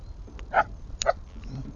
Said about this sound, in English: My dog is with me, as you can hear. I don't know what he sees. He sees something.